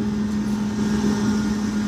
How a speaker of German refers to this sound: Was du jetzt hörst, ist äh, ein Bagger oder so ein Kran. Aber da komme ich gleich dran vorbei